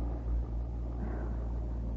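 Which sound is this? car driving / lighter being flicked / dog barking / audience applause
car driving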